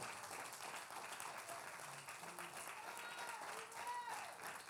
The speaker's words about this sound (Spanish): Den un aplauso fuerte al Eterno que Él vive. Déselo fuerte que te duela, aunque te duela las manos.